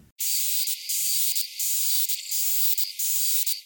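A dwarf cicada calls in a continuous high, buzzing trill, steady, broken by brief rhythmic pulses every half second or so, with no voices.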